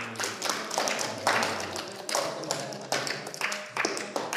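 An audience in a class applauds a participant steadily for a few seconds, many hands clapping in a dense, crackling patter that swells and dips slightly without pausing.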